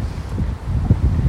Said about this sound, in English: That's why there was no intro music, and that's why you can hear the wind in the background because I'm standing here leaning over a balcony uh, at my mentor's condominium